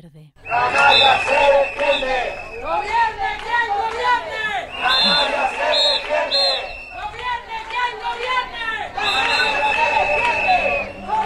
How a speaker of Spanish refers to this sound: Es el sonido de la reivindicación en la calle, precisamente por lo que hemos tratado durante el programa de, hoy.